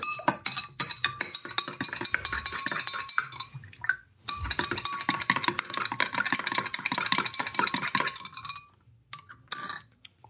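A mixture for a triops (Urzeitkrebse) experiment being stirred in a container, with rapid scraping and clinking strokes of a utensil against the sides, fairly loud and continuous with a couple of short pauses, and no talking.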